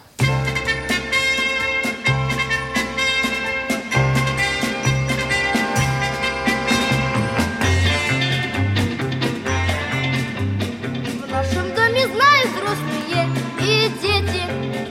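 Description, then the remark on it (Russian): A children's choir sings a bright, upbeat song over a full instrumental accompaniment with a steady bass beat, loud and continuous throughout. “послушаем замечательную композицию, называется э, «…». Э, поет детский хор”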